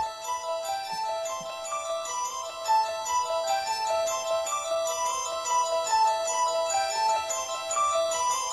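A steady, repeating melody of bright, chiming bell-like notes plays without voices, a looping hypnotic pattern in the style of the famous horror film theme, at moderate, even loudness throughout.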